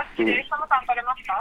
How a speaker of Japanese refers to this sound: はい、今、後ろから音が聞こえましたけど、大丈夫ですかあ大丈夫です、ちょっとインカムが飛んでますそうなんですね、はい、そういう情報を源元にやり取りしてるんですね。